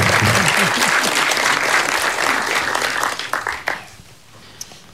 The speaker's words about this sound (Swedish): Där har vi dig. Stor applåd!